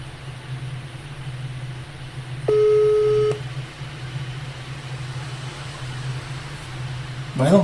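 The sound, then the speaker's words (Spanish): A single steady electronic telephone tone, like a busy signal, sounds for under a second over a constant low droning hum, with no one speaking. “estarán ocupados.”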